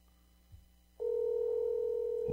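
After a moment of near silence and a soft bump, a steady phone dial tone switches on and hums unbroken and loud until the end, as someone dials a call on a phone.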